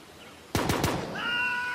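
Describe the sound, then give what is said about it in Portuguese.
Three sharp gunshots fired at the entrance of a ranch crack in quick succession, loud, followed by a steady high-pitched ringing tone that lingers to the end. “São disparos desviados da entrada do rancho.”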